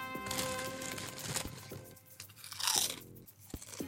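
Loud crunching of potato chips being chewed, with sharp brittle bursts recurring irregularly over a few seconds and no talking.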